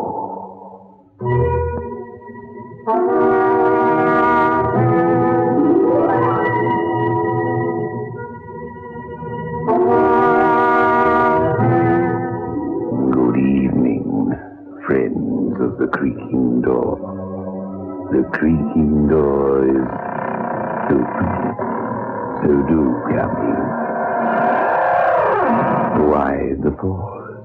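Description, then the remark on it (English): The opening of the radio show The Creaking Door, presented by the makers of State Express 35 Filter King cigarettes: a door creaks open slowly in long, groaning, drawn-out strains whose pitch wavers and slides upward, repeating several times loudly with eerie tonal sound around it. “The creaking door.”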